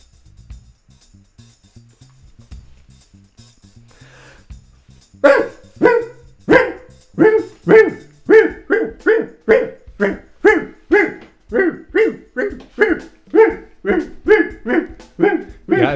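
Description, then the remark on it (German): After a few quiet seconds, a person imitates a dog barking: a long, steady run of loud, evenly spaced barks continuing to the end. “Du darfst aber gerne noch weiter bellen.”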